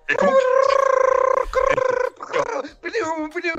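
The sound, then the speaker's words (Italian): A voice imitates a dial-up modem connecting: a loud, steady tone held for about two seconds, then a burst of warbling, chirping screeches. “Quello però è il modem, non è gli SDN, era digitale, non sentivi la modulazione.”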